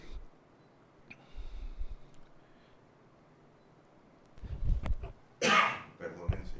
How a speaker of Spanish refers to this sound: yo creo que esos son esas tos que queda así, es como eh, una secuela, ¿verdad? Es como una secuela de del que ha sufrido pues el contagio